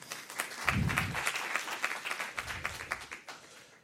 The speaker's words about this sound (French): Et bien évidemment, vous pouvez l'applaudir également.